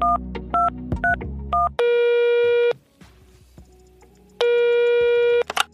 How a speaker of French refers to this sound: on va faire un petit tour du côté du répondeur de Génération Podcast afin de découvrir vos dernières recommandations